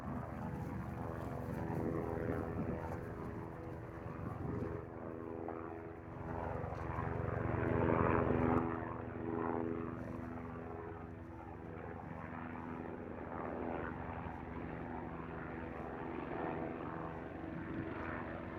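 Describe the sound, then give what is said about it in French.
A helicopter drones steadily overhead above a field, its engine and rotor noise filling the air, swelling louder for a few seconds midway before settling back to a constant hum. No one speaks. “Silence son seul hélicoptère.”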